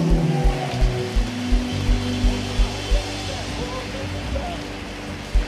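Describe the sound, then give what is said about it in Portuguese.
A church audience applauds the Lord loudly and continuously in praise of God, a dense crackling wash of clapping, with a steady low thump pulsing underneath roughly twice a second throughout. “Dê glória a Deus e aplauda o Senhor bem forte.”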